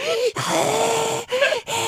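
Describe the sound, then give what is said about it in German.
Someone imitates Darth Vader's heavy, rasping breathing through a breathing mask, a long hissing wheeze followed by a few shorter ones, loud and without any talk. “Es war komplett ruhig und nur ich sitze da in diesem Zugabteil wie Darth Vader, weil er sein, das erste Mal seinen Atemanzug, Atemmaske kriegt ne? und, keucht da so.”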